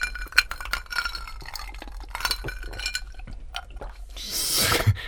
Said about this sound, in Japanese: では今週も私の地元熊本の高橋酒造の米焼酎白竹城で乾杯しましょう乾杯